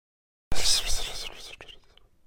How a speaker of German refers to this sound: Hast du das gehört? Was denn? Da war doch ein Flüstern. Das kam aus dem Gang, aus dem Dunklen.